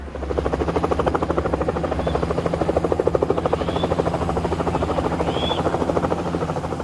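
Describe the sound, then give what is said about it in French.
A helicopter drones steadily, carrying two doctors to Yambuku near the Central African border in Equateur province, Congo; its rotor blades chop in a fast, even rhythm over a low engine hum, loud and continuous throughout with a few faint high chirps. “Un hélicoptère les achemine tous les deux jusqu'à Yamboukou, près de la frontière centrafricaine.”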